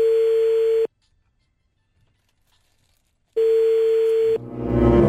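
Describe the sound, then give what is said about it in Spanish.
A steady telephone ringback tone sounds while a number in Mexico is dialed, then goes silent for a few seconds before ringing again. The second ring cuts off into a burst of crackly, rustling noise, as if the line is picked up. “Mi amor, ahí, le estamos marcando el número que nos diste en México.”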